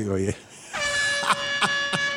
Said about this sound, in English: I was sticking the other day, the fucking foghorn, the, the air horn.